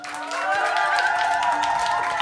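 An audience claps steadily and continuously throughout, a dense wash of hands at a fairly loud, even level, with a sustained musical tone playing alongside.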